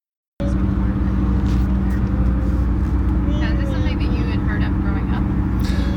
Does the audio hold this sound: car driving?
yes